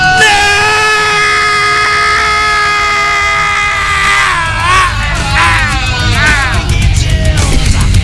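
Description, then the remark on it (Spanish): Several hosts scream together in long, loud, sustained yells, their pitches wavering and sliding up and down toward the end. “Ya no escuché al doctor Arriaga gritar con nosotros”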